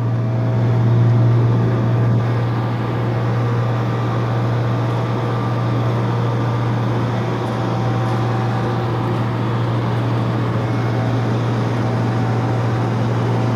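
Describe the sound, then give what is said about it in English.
Loud drain-cleaning suction machinery, with a big suction tube down a storm grate, drones steadily and continuously on a Monday morning, a heavy engine hum with a broad roaring whoosh layered over it, unchanging throughout, with no voices. “Looks like they might be cleaning out the drain.”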